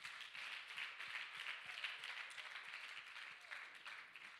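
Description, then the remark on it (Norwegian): A crowd gives another round of applause for the leader of the day's Connect session, a dense wash of many hands clapping at a fairly even level for several seconds, with no voices standing out. “Eh, vi har må få en applaus til.”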